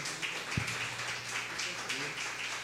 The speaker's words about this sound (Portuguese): Os irmãos podem se sentar. E as palmas louvam o nome do Senhor Jesus.